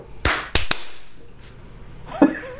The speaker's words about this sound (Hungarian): Hogy egy-kettő-háromra tapsolunk egyet? Vagy Igen. Egy-kettő-három.